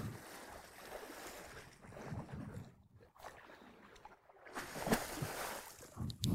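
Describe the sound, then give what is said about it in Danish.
A man kicks down into shallow water at the bottom to see if there are fish, throwing up a couple of rough splashes against steady outdoor wind and lapping water. No one speaks. “han står og demonstrerer øh, og sparker ned i vandet på bunden for at se, om der er fisk.”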